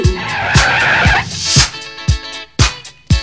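A car's tires skid and screech loudly for about a second and a half over a steady thumping beat of music that continues after the squeal fades.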